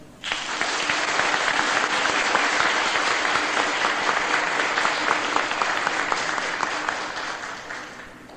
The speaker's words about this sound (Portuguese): a quem eu quero desejar uma salva de palmas.